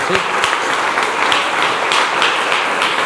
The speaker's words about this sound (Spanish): Entonces quiero que le dé un aplauso gigante al Señor por eso.